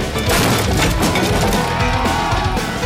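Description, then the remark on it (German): Wood splinters and cracks loudly as a wildly dancing, spinning crowd breaks through a garden fence, a dense, continuous burst of snapping and crashing with no voices. “Sie durchbrachen den Gartenzaun.”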